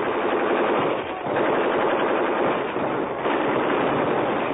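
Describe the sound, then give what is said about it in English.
Loud, sustained gunfire in a battle skirmish between a squad on a hill and about 40 German soldiers near a railroad embankment: dense rapid shots crackle together into a continuous roar, easing only briefly twice before surging again. No one speaks. “It was one of the hottest skirmishes we were ever in.”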